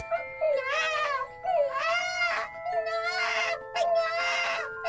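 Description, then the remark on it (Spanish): A child cries and wails in long, strained bursts, about four drawn-out sobbing wails in a row with brief gasps between them, loud. “El niño lloraba sin descanso. Aún puedo escuchar sus chillidos.”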